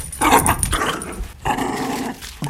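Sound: dog growling playfully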